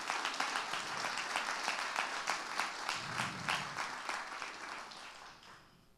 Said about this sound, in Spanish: Dele un aplauso bien fuerte al Señor en esta hora.